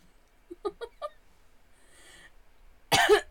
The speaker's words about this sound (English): Again, that was a cough. Gotta emphasize it now that I'm coughing.